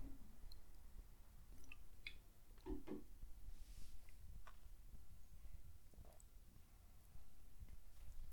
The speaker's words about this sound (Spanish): Eh, pausa para un traguito de agua.